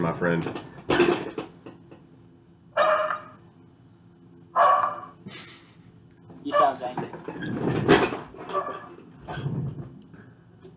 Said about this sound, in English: Wait, yo, we cannot hear you over the dog barking